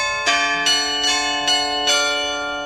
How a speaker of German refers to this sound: Auch die imposante Christuskirche in der Oststadt ist sehenswert, die Trinitatiskirche und St. Sebastian am alten Rathaus mit seinem charakteristischen Glockenspiel.